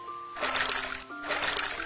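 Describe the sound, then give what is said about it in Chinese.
Two bursts of splashing, like feet jumping into a small puddle filled with rainwater, each a hissy spray of water over a faint steady tone, with no talking. “它一会儿转动雨伞，一会儿跳进积满雨水的小水坑，溅起一片片水花。”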